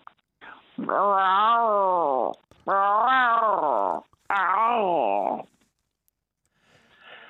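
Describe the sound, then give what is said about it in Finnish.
A person imitates a tomcat's yowl in three long, loud, wavering calls with short gaps between them, followed by a faint rustle. “Sitten kolleja.”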